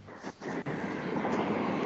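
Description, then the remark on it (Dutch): A steady, broad rumble of a train rushing past outside, loud and continuous with a brief dip early on, with no talking over it. “De treinen knallen door de podcast hier.”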